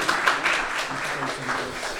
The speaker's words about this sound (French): est-ce qu'on peut l'applaudir C'est pas facile, mais il est là, bachelier 2018, bravo. Et sa maman qui est là aussi. On peut l'applaudir aussi.